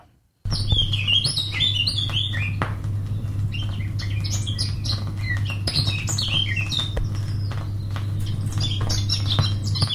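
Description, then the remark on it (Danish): A Eurasian blackcap sings a busy run of bright, warbling phrases over a constant low hum, with other faint chirps around it and no talking. “Det er Sludersatollet der på, og det er faktisk fuglen Munken, vi hører lige nu.”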